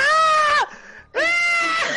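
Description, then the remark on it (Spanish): A voice imitates a woman singer's scream: two loud, high, drawn-out shrieks separated by a brief pause, the second held a little longer. “está gritando, tipo, ¡Ah!”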